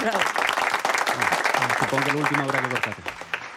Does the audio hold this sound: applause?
yes